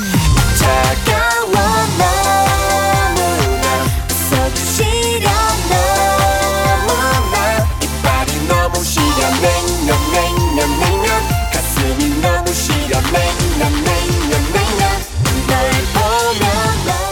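A bright, upbeat pop song plays at full volume throughout, with a steady punchy beat, bouncy bass and layered melodic vocals and synths, no speech over it.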